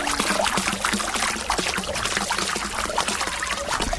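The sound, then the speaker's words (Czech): Water from one of the two spouts of the fountain on Nepomucké náměstí in Nepomuk splashes steadily into a basin, a continuous pouring and bubbling with no pauses and no voices. “Tak takhle šplouchá kašna na Nepomuckém náměstí, jeden z jejich dvou chrličů.”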